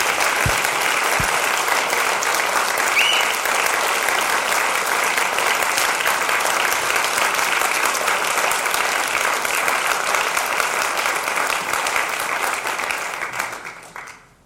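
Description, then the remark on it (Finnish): A large church audience claps steadily in a loud, dense wash of applause in tribute to two long-serving members, holding for over ten seconds before tapering off at the end, with no talking over it. “Annetaan semmoiset aplodit, mitä me tarkoitetaan.”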